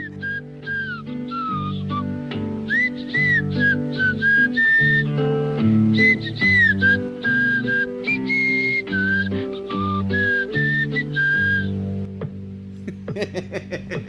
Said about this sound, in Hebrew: אה, שתכלס בחרת שיר אה, שהוא לא שיר, זה מאוד יפה, זו שריקה. כן, זה היה שמחת חיים מאוד מקורי.